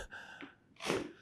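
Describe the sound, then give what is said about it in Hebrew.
A single sharp sneeze bursts out, preceded by a brief tense intake of breath, the explosive release loud and noisy before trailing off. “לבריאות.”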